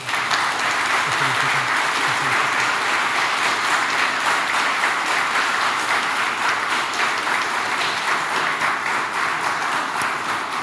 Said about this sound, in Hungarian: Mindkét képviselőtnek szeretnék kérni egy nagy tapsot a közönség soraiból.